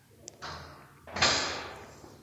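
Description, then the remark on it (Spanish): A small metallic click is followed by a soft scraping rush, then a louder swish of a door swinging open that fades slowly, as keys are taken from a pocket, a door is opened and its lock is turned again. “activé la grabación justo antes de ir hacia la puerta el audio deja en evidencia ese momento en que extraigo las llaves del bolsillo, abro la puerta y giro nuevamente el seguro de la chapa.”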